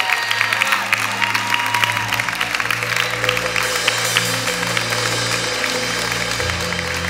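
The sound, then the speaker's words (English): An audience applauds steadily for Jesus, a dense continuous wash of many hands clapping at once, with sustained low organ-like tones droning underneath throughout. “Go ahead, clap hands for Jesus.”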